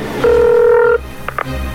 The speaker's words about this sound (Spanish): marcándome otra vez. Tengo que cambiar de número de teléfono ya. Contesta, contesta.